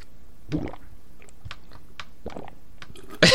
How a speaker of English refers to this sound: Stop drinking so much water.